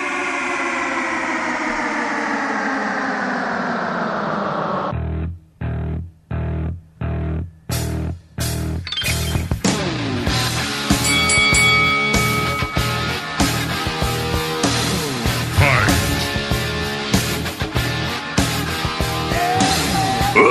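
A hard rock song plays loudly with no voices: a long descending droning wail opens, then a handful of punchy stop-start hits, before the full distorted band kicks in and drives steadily on.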